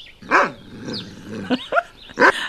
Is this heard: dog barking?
yes